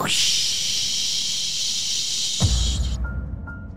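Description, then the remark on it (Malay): A steady hiss of shower water spraying in a bathroom fills the first few seconds, as if someone is bathing, then shifts to a lower, rumbling splash before cutting off abruptly near the end. “Dan lepas aku dengar bunyi air pancuk tu keluar ataupun bunyi air shower tu keluar”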